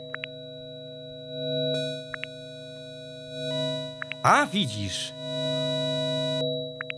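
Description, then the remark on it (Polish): A steady synthesizer tone from an app hums throughout, its timbre switching from a smooth, pure sine wave to a brighter, buzzier waveform and back as a button press changes the wave shape, with a brief voice speaking over it midway. “Zmienia nam sinusa. Aha, czyli można. Jednak można, wiesz? Czyli można zmienić kształt fali.”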